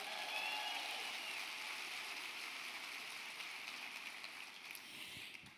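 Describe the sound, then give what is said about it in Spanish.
A crowd applauds for the many Puerto Ricans watching, in a dense, steady wash of clapping that holds for several seconds and fades slightly toward the end. No one speaks over it. “Dale un aplauso a todos los que nos están mirando ahí.”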